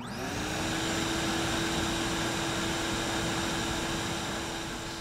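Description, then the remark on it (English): A vacuum cleaner runs steadily and loudly throughout while a house is cleaned from top to bottom, a constant whooshing roar with a rising motor whine as it spins up at the start. No one speaks. “I took Mum's vacuum cleaner and I blitzed the place.”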